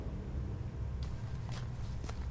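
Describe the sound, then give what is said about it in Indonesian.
A few footsteps of a man walking about one and a half kilometres home at around 11 at night on a road wet from recent rain, crisp splashy scuffs spaced unevenly over a low steady rumble, with no voices present. “Dia akhir jalan kaki sekitar satu setengah kilometer menuju rumahnya.”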